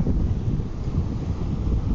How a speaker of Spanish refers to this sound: bienvenidos nuevamente a Curiosa Realidad aquí en la playa con viento, por si acaso lo escuchan.